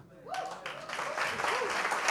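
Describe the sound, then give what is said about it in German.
A church audience bursts into sustained clapping as a clap offering to Jesus, starting suddenly and building, dense and loud, with raised voices and shouts mixed into the applause. “Ah, lass uns Jesus einen Klatschopfer geben.”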